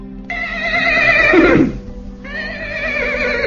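A horse neighs twice: a loud, wavering whinny that rises and then drops into a low snort, followed by a second shaky, high-pitched whinny. No one speaks.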